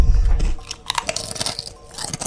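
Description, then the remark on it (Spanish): A crisp bite into a smooth potato chip, harder than the ridged kind, followed by a quick series of sharp, bright crunches and crackles that fade into softer chewing. No one speaks. “Esta es lisa. Cavidad rugosa y ondulada. Con, sí. Se llama corte americano. Muerde ahora la lisa.”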